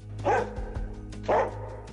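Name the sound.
herding dog barking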